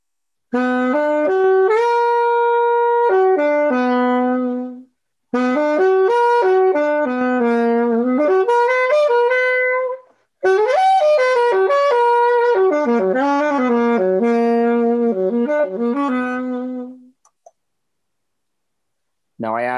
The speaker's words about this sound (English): I'm just going to play it real quick because I just love this chord. It's so much fun to mess around with. It's so eerie, creepy, dense, crunchy in a way. I love this chord. So here's a minor major seven chord. Here's what it sounds like.